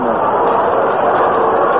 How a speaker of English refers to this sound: You can hear the reaction of the crowd. They want to see Mickey get something to swing on.